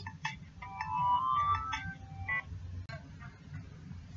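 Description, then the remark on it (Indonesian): Electronic phone tones play while a call is placed, a few short bright beeps and sustained tones over a steady low background hum, moderately loud. “Kita langsung aja telepon mam, oke?”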